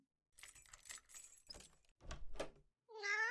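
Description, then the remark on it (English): Keys jangle and rattle in several bright, shaking bursts, followed at the very end by a short, clear cat meow. “I have the keys in the car somewhere.”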